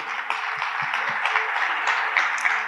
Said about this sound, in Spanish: Siguiente, por favor. Un aplauso, exacto, siguiente.